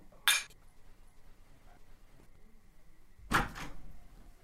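Two brief, bright clinks of glasses touching in a toast, spaced about three seconds apart, the second slightly fuller, with no talking.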